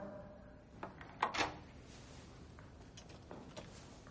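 household object, door opening

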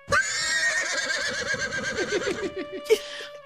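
animal, horse neighing

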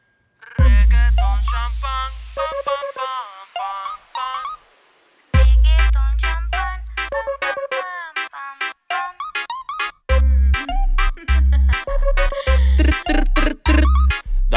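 song playing

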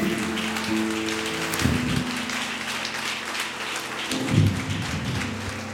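crowd, audience applauding

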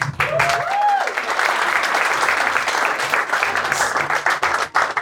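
crowd, audience clapping

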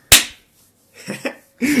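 human body sound, hands clapping

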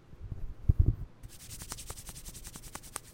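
human body sound, hands rubbing together

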